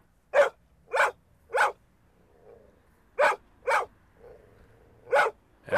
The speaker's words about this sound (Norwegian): Øy, det er en hund. Det er lyden av friluftsliv. Lag en lyd, hund. Lag en lyd.